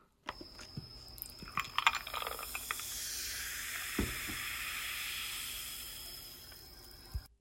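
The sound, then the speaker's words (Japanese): Carbonated water fizzing steadily, a hiss of bubbles that swells and settles, with scattered small pops and clicks at the start and a couple of sharper ticks later. “炭酸水の音これもいい音ですね”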